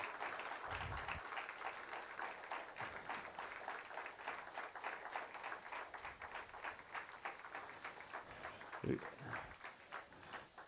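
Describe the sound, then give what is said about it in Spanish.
An audience applauds Christ steadily for about ten seconds, a dense crackle of many hands clapping at an even level, with a few faint voices and low thumps mixed in. “Dele un fuerte aplauso a Cristo en el día de hoy.”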